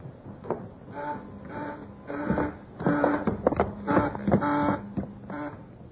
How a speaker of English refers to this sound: Hmm, that's a funny one. B-24 ringing for steward and stewardess both. We'll have a look.